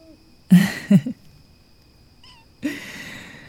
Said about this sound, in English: That's my kitten.